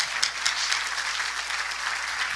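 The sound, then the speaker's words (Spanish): An audience applauds together, giving a round of applause to the Lord: a dense, steady wash of many hands clapping at once with no pauses, fairly loud and sustained throughout, with no voices standing out. “Dale un aplauso de poder al Señor, por favor.”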